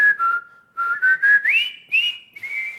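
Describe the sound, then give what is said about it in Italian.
A bright, clear whistled tune of a World War One military march, reinterpreted for a film shot in Sri Lanka that won seven Oscars, its melody stepping upward in short rhythmic phrases with brief breathy gaps, fairly loud, with no voices. “ha reinterpre- reinterpretato una marcia della prima guerra mondiale.”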